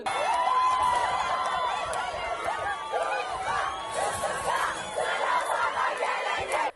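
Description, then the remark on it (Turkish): A crowd of students shouts in protest over an elevator breakdown at the Sultan Alparslan girls' dormitory in Muş, many voices overlapping in a loud, continuous roar of yells and chants with no pause throughout. “Öğrenciler durumu protesto etti.”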